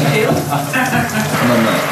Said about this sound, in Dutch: Lekker warme douche zo. dat is wel, eh, is lekker, ja.